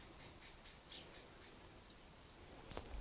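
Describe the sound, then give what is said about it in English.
Faint birds chirping in a garden, many of them, a quick series of high twittering notes followed by one sharper chirp, with no one talking. “And I also want to thank all of these unruly birds in my garden.”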